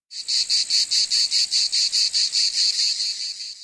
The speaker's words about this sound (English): For you listeners who have never heard a cicada, they sound a bit like a rattlesnake and a wind up kitchen timer going off.